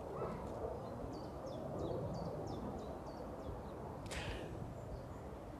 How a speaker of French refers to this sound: Voilà, un podcast dans la nature. Euh, vous entendez peut-être le vent, les oiseaux, je sais pas, l'avion qui passe au-dessus de moi.